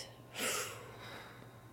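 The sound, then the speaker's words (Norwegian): A single breathy rush of air, rising quickly and fading out over about half a second against a faint steady hum. It sounds like one deep exhale during a seated relaxation breathing exercise. “Og så puster vi godt ut.”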